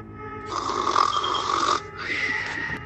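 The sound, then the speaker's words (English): A voice imitates snoring with two long, rasping, exaggerated snores, each drawn-out inhale rattling loudly before a short pause. “Her gullet doth snore.”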